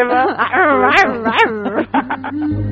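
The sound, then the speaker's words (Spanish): A person imitates a very wild animal growl as a farewell, loud and wavering, with pitch rising and falling in a string of yowling, snarling bursts for a couple of seconds. “Pero, mm, en fin, te despido con un gruñido muy salvaje.”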